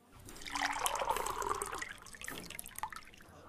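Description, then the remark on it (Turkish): Liquid pours steadily into stemmed glasses at an elegant candlelit venue for about two seconds, a bright splashing trickle, followed by a few faint drips and clinks as it tapers off. “Mumlar yanmış. Kadehler doldurulmuş.”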